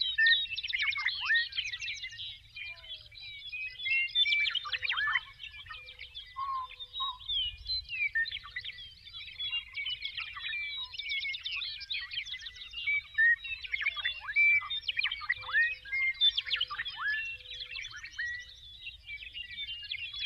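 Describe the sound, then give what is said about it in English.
Grassland ambience at Grasslands National Park in Saskatchewan, in the central part of the continent, filled with continuous, overlapping high-pitched birdsong (rapid chirps, trills and tweets from many birds) over a faint low rumble, with no voices throughout. “And this is Grasslands National Park in Saskatchewan.”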